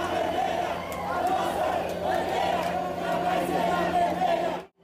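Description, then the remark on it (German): A large crowd of Bolsonaro supporters at Paulista station in Brazil chants the slogan 'Our flag will never be red' in unison, loud, with rhythmic rising and falling voices and a dense background roar, cutting off abruptly at the end. “Dann skandieren sie einen der Slogans, der an dem Tag zentral ist.”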